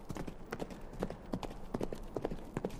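A horse gallops westward in the night, its hooves striking in quick, uneven clusters of sharp clops over a steady low rumble of background noise, fairly soft overall with no voices.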